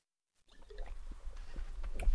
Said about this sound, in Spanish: perdonad que voy a echar un traguito de agua, que estoy aquí con, el picor de garganta.